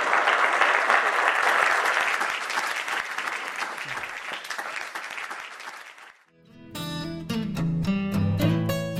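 An audience applauds steadily for about six seconds after a Stanford Technology Ventures Program Entrepreneurial Thought Leader lecture, a dense, even clatter of clapping hands, before it cuts off and bright instrumental music takes over.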